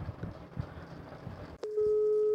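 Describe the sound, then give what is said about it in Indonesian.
A muffled, rumbling stretch with soft low thumps ends in a click, then a loud, steady electronic ringing tone of an outgoing phone call placed through an app starts and holds to the end. “menggunakan interaksi jarak jauh menggunakan salah satu aplikasi seperti pada saat ini kami akan telepon seseorang”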